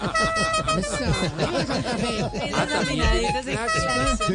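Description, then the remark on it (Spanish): A honking horn blares in sustained tones, loud, mixed with busy voices talking and laughing over it throughout. “Suena ese claxon.”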